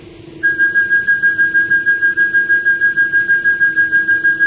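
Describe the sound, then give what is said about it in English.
A telescope guidance audio reference signal: a steady electronic tone pulsing rapidly and evenly, about five beeps per second, loud over a constant low hum, with no voices. “Give me an audio reference for the telescope guidance.”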